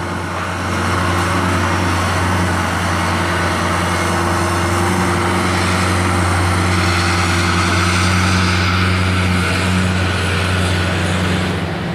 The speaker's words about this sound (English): I discovered guy with his ditch digger here.